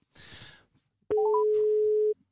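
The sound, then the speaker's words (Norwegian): A short rush of hiss, then a loud, steady telephone ringing tone holds for about a second, with a few quick higher beeps stepping up near its start. No one speaks. “Ja, da ringer vi”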